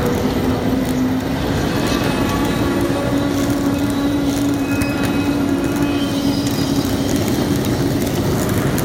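Steady rumble of a train at a busy platform of Hamburg Hauptbahnhof (main station), Germany, with a low droning hum, faint metallic squeals and a continuous wash of background noise throughout.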